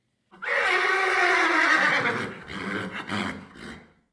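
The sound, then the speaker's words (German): A horse neighs loudly, one long high whinny that holds steady, then breaks into a quavering, fluttering tail before fading out. No one speaks. “Was, das erfährt man auf der Generalversammlung der Pferde.”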